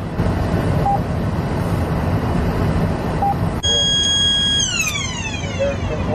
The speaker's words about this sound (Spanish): Cuando tú oyes un zumbido así, eh, quiere decir que, que, te está indicando que hay un vehículo que tiene las placas expiradas